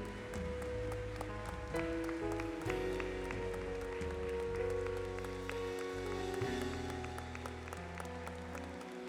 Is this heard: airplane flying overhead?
no